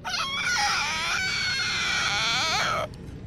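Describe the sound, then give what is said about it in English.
A masked figure, face turned toward the sky, screeches as an augur: a loud, sustained screech, shrill and wavering with quivering harmonic bends, held for nearly three seconds before cutting off abruptly, leaving faint low noise behind. “I know what you fear most his masked face turns toward the sky, and he begins to screech as an augur.”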